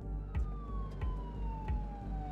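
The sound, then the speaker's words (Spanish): An ambulance siren wails with a long, steady tone that slowly slides downward, heard over a rumbling background with a few soft, regular thuds like footsteps, as people walk toward a fire in zone 11. “Mientras caminaba, escuchaba el sonido estridente de las ambulancias.”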